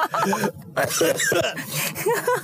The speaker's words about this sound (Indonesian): langsung batuk